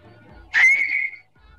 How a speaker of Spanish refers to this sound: Quiero que chiflen los dos a ver quién chifla mejor.